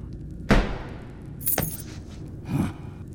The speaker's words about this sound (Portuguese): O velho chuta a porta com raiva e ouve o barulho das chaves que caem no chão.